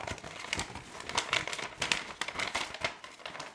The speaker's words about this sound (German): Ich druck den, glaube ich, auch extra DIN A3 nochmal aus oder DIN A2. Einfach ja. damit er so richtig unnötig groß ist. Immer wenn ich danach gefragt werde, dann falte ich dieses diesen riesen Wisch dann so auseinander.